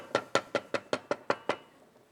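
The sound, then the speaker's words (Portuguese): A quick, steady run of eight firm knocks on the door of a home, evenly spaced, then silence. “E então eu tinha discutido com a minha mulher, a minha mulher comigo, e de repente bate à porta.”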